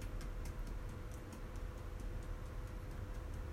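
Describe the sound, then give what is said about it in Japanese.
Very soft, steady tapping on a small cajon, deliberately played at the smallest, barely audible volume as practice in volume control, light clicky hits repeating in an even rhythm, faint, with no voices over a low background hiss. “今これ聞こえるか聞こえないかぐらいのちっちゃな音で叩いてるんですけれどもこれがラジオトークの中に入ってるかどうかちょっとわからないですが、えー、まあ、本当にもう自分でもわかるかわからないぐらいのちっちゃな音で叩いてみる”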